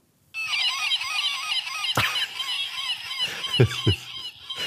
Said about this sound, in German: das ist eine, das ist aber, ist es eine Möwe? Ist eine ja, Möwe, oder? natürlich. Das ist eine Möwe.